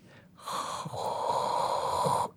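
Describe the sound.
Someone imitates low-pitched brown noise with their mouth: a steady, breathy rushing hiss held for about two seconds, fairly loud, with no talking.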